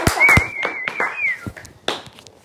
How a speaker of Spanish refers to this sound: Quería un aplauso para el lucido, pero pues. o sea, para ti.